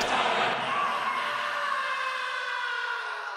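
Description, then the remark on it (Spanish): A single long, loud scream with a harsh, strained tone, holding steady for several seconds before its pitch sinks slightly and it begins to trail off. “Y antes de que se le vengan encima, la antorcha se consume y solo queda el silencio, seguido de un único grito.”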